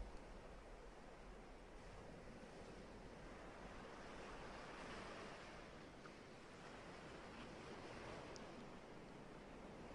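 Continuous ocean surf washes steadily, a broad, even roar of waves with gentle swells and no voices.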